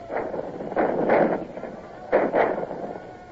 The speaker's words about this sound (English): And here come their cannon. They seem to have plenty of ammunition to waste.